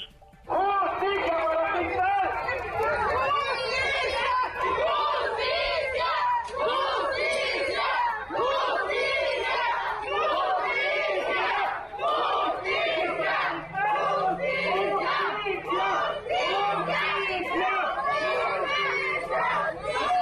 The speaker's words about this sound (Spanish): Ahí, justamente en el búnker de la Fiscalía, se escucharon los gritos de justicia de familiares y amigos. Escuchemos.